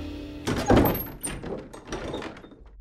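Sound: door being opened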